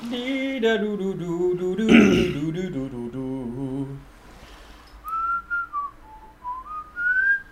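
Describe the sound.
A voice hums a wordless tune, then someone whistles a short melodic phrase in clear, bright notes with brief pauses between them, no talking over it.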